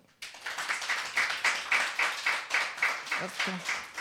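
A short burst of applause from a small group on the radio show Radio Totalmål, given for the day's technician, quick claps blending into a steady patter that lasts a few seconds, fairly loud.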